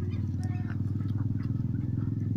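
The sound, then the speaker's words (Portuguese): A motorcycle engine rumbles with a deep, rapid throbbing that holds steady and loud for a couple of seconds, with no talking over it. “Deixa a moto passar. Passou.”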